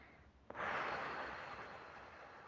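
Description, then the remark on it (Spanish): A single long, deep breath drawn in during a guided meditation, a soft airy rush that starts abruptly and slowly fades over about two seconds, with no talking. “Se puede cerrar los ojos adelante. Respiramos, por favor.”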